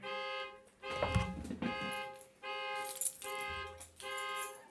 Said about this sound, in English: Uh oh. Beep, beep. Sorry. I hit my own keys. I started my panic button. Yeah, I hit my panic button.